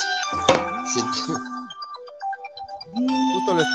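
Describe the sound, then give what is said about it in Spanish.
A phone ringtone for an incoming call plays a bright, repeating electronic melody with steady tonal notes, clear, while a voice talks over parts of it during a sports talk broadcast. “justo lo están llamando por teléfono.”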